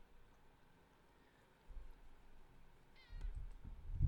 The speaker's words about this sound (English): that's the cat rubbing on the microphone just so so people know on the podcast.